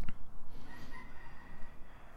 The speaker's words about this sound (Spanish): Ahí va el gallo. Yo soy el gallo. Eso. Fun fact, eso es lo que está diciendo ese, gallo ahora mismo.